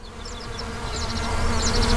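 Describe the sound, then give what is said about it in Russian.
A steady swarm of bees drones throughout on a farm with green fields of honey plants, a dense low buzzing, while faint high bird chirps flicker above it. No one speaks. “Это особенное растение, которое очень любит посещать пчелы для сбора нектара и пыльцы.”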